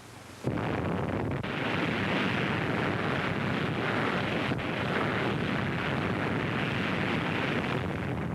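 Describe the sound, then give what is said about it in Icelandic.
A sudden, massive underwater nuclear blast, a bomb detonated in the lagoon at Bikini in July 1946 among unmanned warships, bursts in after a brief moment of quiet, then a dense, steady roar and rumble carries on for several seconds, with no voices. “Síðar í júli var annari sprengju komið fyrir neðansjávar í lóninu í bygginýri við miðju.”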